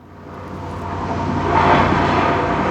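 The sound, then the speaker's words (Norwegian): Distant construction work in Ischgl, Austria, where workers are renovating a hotel: a steady, broad mechanical rumble like machinery at a worksite, swelling slightly louder midway and holding, with no voices. “I det fjerne kan en høre anleggsarbeidere pusse opp et hotell.”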